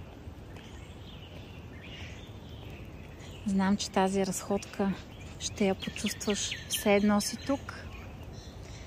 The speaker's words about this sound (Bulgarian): Вярвам, че чуваш птичите песни, прекрасни.